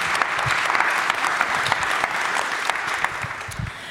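Sustained, dense applause from an audience welcoming a guest being introduced fills the whole stretch, many hands clapping at once in a steady roar with no one speaking over it.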